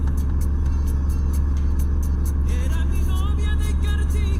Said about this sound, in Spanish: Ni siquiera pudimos ver el ferry mismo cruzar el Magdalena pero al menos lo pudieron oír. Eh, nuestras grabadoras solo captaron el motor del ferry y el vallenato que salía de la radio.